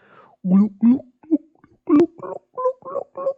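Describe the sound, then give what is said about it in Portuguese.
A voice imitates wine glugging out of a bottle into a glass, a run of about nine rhythmic, gurgling pulses, moderately loud, with no other sounds. “Mas é tipo, cai ali umas bolhas para dentro, faz tipo e depois tipo mija mais ou menos para a garrafa, da garrafa para o copo, mais ou menos como?”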